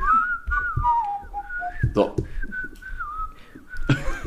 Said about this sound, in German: Jetzt ist gut. Die schlechtesten Pfeifer.